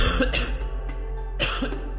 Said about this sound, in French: Ce qui se dégage, c'est que la toux de la personne qui a la COVID n'est pas la même que celle d'une personne qui ne l'a pas.